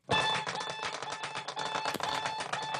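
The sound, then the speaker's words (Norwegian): A loud alarm clock with a shaking function beeps with a steady, piercing high tone over a fast rattling buzz, sounding continuously for a few seconds with no one speaking. “Dette eksempelet er også med en sånn ristefunksjon, men bare hør på den pipelyden.”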